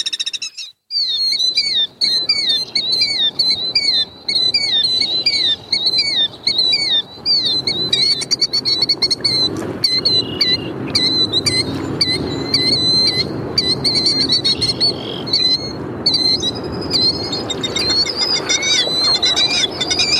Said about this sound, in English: When disturbed at the nest site, they will give a long, drawn out call, and is often terminated with a steady trill. Here are some examples of the loud, piercing call of the killdeer.